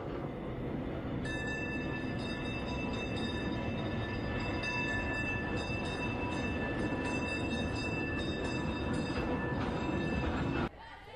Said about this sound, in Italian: Ecco che però, dunque, il nostro percorso non si ferma qui, ma vogliamo andare avanti, vogliamo risalire sul nostro tram e andare nella prossima tappa.